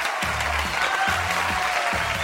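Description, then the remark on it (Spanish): Sustained applause from a large crowd, a dense, steady wash of many hands clapping at once that fills the whole clip at a fairly loud level. “Bueno, pero está aplaudiendo mucha gente, ¿eh?”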